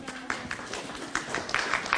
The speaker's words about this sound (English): You've done very well. You will get the prize at the end. Give her a clap.